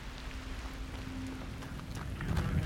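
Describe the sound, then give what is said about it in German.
Steady rain falls in a dense, even patter with scattered sharper drops, and a low hum runs underneath; heavier splashing of a woman's hurried footsteps as she runs through the rain builds near the end, in open terrain at a base camp about 30 kilometres from Hilo. “rennt durch den Regen.”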